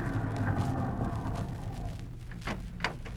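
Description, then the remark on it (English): A chauffeur-driven car drives in at the NBC studio with a low, steady engine rumble that gradually dies away, followed by a few sharp clicks and knocks. No one speaks. “Say, Jack, look at that beautiful car driving in.”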